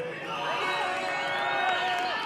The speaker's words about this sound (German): Nicht alle glauben ihm das. Applaus mischt sich mit Buhrufen und Rücktrittsforderungen.